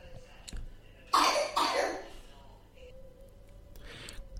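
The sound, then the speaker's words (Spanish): Two harsh coughs burst out in quick succession, loud and broad, followed by quieter background noise and a faint breathy sound near the end. “… está tosiendo,”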